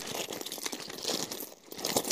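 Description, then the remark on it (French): Crinkling and rustling as someone digs through a bag to retrieve an Assemblée nationale pin from the bottom of it, with dense, irregular crackles and soft thumps shuffling continuously, dipping briefly before picking up again. “Regardez, je retrouve au fond du sac justement que je cherche depuis longtemps.”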